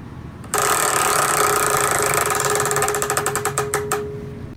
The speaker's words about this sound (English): I think it's time we spin the wheel and see what this week has. All right, here we go.